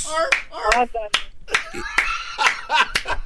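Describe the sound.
About eight sharp hand claps land at an uneven, unhurried pace, each one a crisp smack, while voices and a bit of laughter carry on underneath between them.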